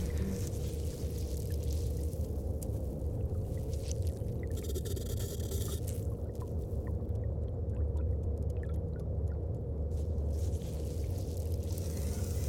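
A steady churning of water being sucked into a container, low and continuous, with faint scraping ticks coming through over the gurgle; bits of branches break off and float in the dirty water. No one speaks.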